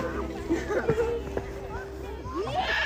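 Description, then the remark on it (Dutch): A group of children playing outdoors, a busy mix of overlapping young voices and occasional shouts, continuous throughout, with a steady background hum underneath. “Eh, ik loop heel even langs eh, een aantal spelende kinderen.”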